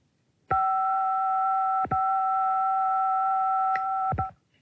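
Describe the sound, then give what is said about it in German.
A single telephone keypad DTMF tone for the fifth digit of a phone number being dialed, a steady two-pitch beep held for nearly four seconds, loud, with a couple of brief clicks interrupting it and no talking. “So, das war die fünfte Ziffer aus der Telefonnummer.”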